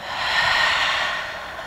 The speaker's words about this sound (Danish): Trækker vejret.